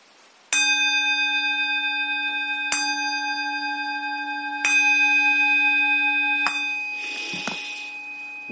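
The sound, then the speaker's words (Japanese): A Buddhist temple bell is struck four times at steady intervals of about two seconds during a Buddhist service, before the recitation of the vow (hotsugan-mon); each clear, resonant tone rings on, followed by a brief rustling noise near the end. “鐘3回鳴らした後に、願わくは我と一切衆情とですよ。”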